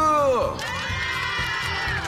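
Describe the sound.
An audience cheers and applauds, with whoops and shouting voices, one sliding sharply downward in pitch, over a steady, loud wash of crowd noise for about two seconds.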